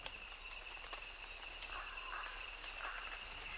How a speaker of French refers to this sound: On entend d'abord les chants des insectes et des grenouilles. Soudain, une pluie torrentielle. Puis à mesure que la pluie s'atténue, émergent les chants d'autres grenouilles et d'autres insectes.